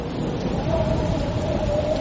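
Steady heavy rain with hail pours down with a dense, continuous hiss, and a low thunderous rumble rolls underneath throughout, fairly loud, with no voices.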